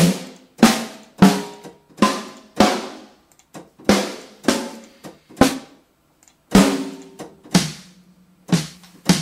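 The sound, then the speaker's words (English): A run of sharp, loud snare drum hits played alone, roughly fifteen strikes in a loose, uneven rhythm, each with a bright crack and a short ringing tail. “what snare drum did did um, he use in the?”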